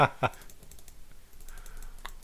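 Sharp clicks from a computer mouse and keyboard while someone plays a computer game, a couple of quick taps near the start and another later, over faint background noise.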